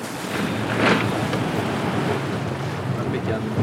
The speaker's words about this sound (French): Autour de nous, Cinq bateaux prennent le vent. Ce sont des Figaro. Nous sommes partis pour 7 heures en mer.